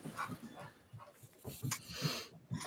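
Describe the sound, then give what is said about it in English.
A pet dog with the zoomies snorts and huffs in quick, irregular bursts, with scuffling movement sounds as it scampers around. No one speaks. “Yeah, I like the dog interruptions.”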